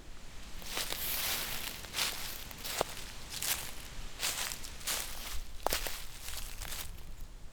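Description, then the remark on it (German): Dry leaves rustle and crackle in repeated bursts, like footsteps shuffling through a thick leaf layer, each crunch fairly loud over a soft hiss; no one speaks. “Erster Teil Blätterrauschen vom Rascheln und Knistern.”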